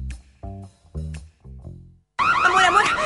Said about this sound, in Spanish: Entraron a robar. ¿Pero cómo? Estaba sonando la alarma.